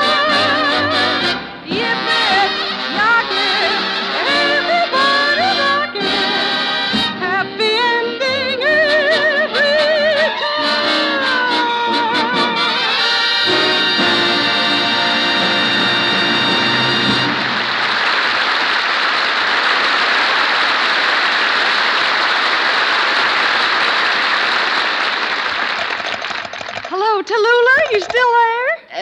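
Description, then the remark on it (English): A song with singing and orchestra ends, then a loud burst of audience clapping rises and holds steady for about ten seconds before a voice starts to speak. “I see you have an escort service for applause, too.”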